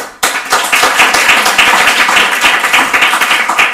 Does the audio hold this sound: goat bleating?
no